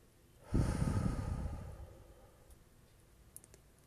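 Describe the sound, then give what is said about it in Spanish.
A single slow exhale through the mouth during a guided breathing exercise, breathy, rushes out at full strength and then gradually fades over a second or two into quiet, with no talking. “cierra los ojos conmigo y toma aire profundo por la nariz hasta que se llene hasta el fondo de tu ser y empieza a exhalar poco a poco por la boca.”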